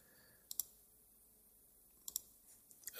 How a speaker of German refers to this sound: Und nur 37 Klicks später sind wir auf dem Weg zum vorletzten Klick.